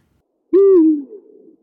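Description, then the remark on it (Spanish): A single owl hoot, loud, gliding slightly downward before trailing off into a softer, wavering tail. No one speaks; the hoot stands alone against silence. “Así es que la conciencia del búho un emblemático tótem de la sabiduría ancestral de América y característico de este clan”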